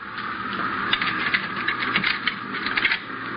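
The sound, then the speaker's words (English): Keys jangle and rattle in a lock as a door is unlocked and opened, a busy run of crisp metallic clicks lasting a few seconds with no voices. “Pick up these keys and open that door.”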